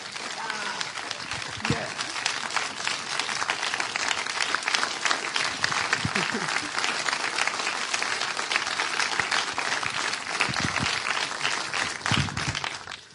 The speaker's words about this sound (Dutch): Zullen we de Heer Jezus een groot applaus geven? Allemaal even staan.